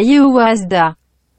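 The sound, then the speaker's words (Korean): A brief, loud snippet of a male rapper's vocal from a Korean rap song, played as a guessing quiz: two quick voiced phrases, with little backing evident, cutting off abruptly into silence. “남자 래퍼분입니다.”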